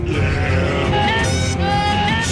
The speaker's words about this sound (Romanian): Asta e un montaj uh, pe, pe tema de la Game of Thrones. De la doar, Game of Thrones. Da, doar cu capre.